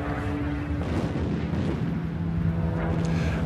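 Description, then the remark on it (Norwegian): Continuous, unpredictable bombing, either near or distant: a steady, heavy low rumble of overlapping blasts and booms rolls on without pause, fairly loud throughout, with no voices. “I tillegg til dette så er det da den kontinuerlige bombingen som du hører.”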